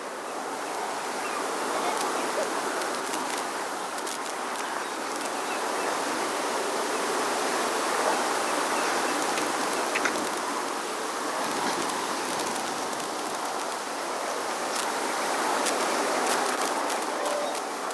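A loud, steady insect buzzing fills the scene without pause, a dense hum with faint clicks scattered through it and no voices.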